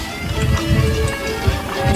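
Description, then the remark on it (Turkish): Steady footsteps walking along, a regular thudding rhythm over a busy background hum of street noise, fairly loud, with no talking. “Birileri bir yerde yürüyor.”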